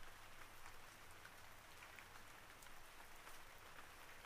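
Steady rain falls in a continuous soft hiss, dotted with scattered crisp drop taps and a faint low hum underneath. No one speaks.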